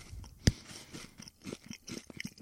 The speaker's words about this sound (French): C'est niaiseux que je vais dire là, mais comme depuis qu'ils ont changé, je trouve les Pringles ont jamais de la frais. Toi, tu croques dedans, première affaire qui te vient en tête, hey, si tu passes cette date, je check la date.